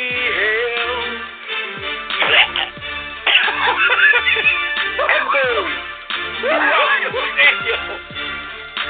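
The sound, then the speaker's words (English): A man in a stadium coughs heavily and repeatedly in harsh, barking bursts, loud, with a strained, rough voice between the coughing fits. “There is a pause throughout the stadium as this man sounds like he just coughed up a lung.”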